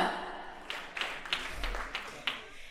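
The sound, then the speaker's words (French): Light, scattered applause from an audience in a hall, answering by applause whether anyone there has anxiety disorders: a handful of sharp claps stand out at uneven intervals over a soft, steady wash of crowd noise, staying fairly quiet throughout. “Est-ce que, par applaudissement, est-ce qu'il y a des troubles anxieux dans la salle”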